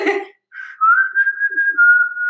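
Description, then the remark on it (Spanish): A person whistles the melody of a Swedish band's pop song, a clear steady tune of held notes that carries to the end, after a brief burst of voice at the start. “La del chiflidito.”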